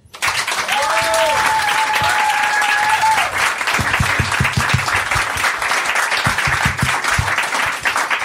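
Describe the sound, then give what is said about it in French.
Loud, sustained applause from an audience for the event's guests fills the whole stretch, with a few whistles rising above the dense clapping early on and the crowd noise steady throughout. “On les applaudit bien fort.”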